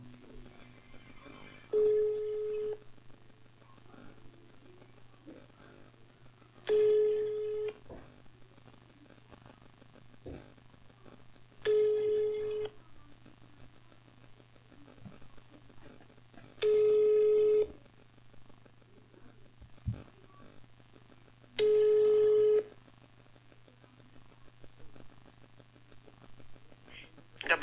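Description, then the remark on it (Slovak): Repeated telephone line tones, five evenly spaced beeps about every five seconds, each lasting roughly a second, over a steady low hum and faint background noise while a call to the central switchboard of Leopoldov prison in Slovakia is being transferred. “Samozrejme som sa dovolal na centrálu a odtiaľ ma museli prepojiť.”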